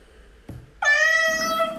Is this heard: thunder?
no